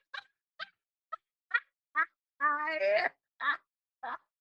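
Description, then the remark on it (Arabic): A person imitates a chicken clucking: a string of short, rhythmic clucks with a drawn-out, warbling cackle in the middle, clear with no other sounds. “كوكو كوكو توكي توكي كوكو”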